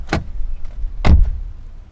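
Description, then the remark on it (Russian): Two solid thuds of a car door as people get out of the car, one about a second after the other, over a low rumbling hum with no one speaking. “Мы уходим из машины.”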